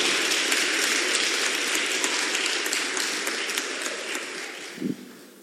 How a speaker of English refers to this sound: Clap for God, clap for God, clap for God, clap, clap for God.